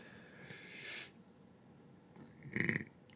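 Two burps into the microphone, a short one followed by a longer, louder rumbling one about a second and a half later, with no talking.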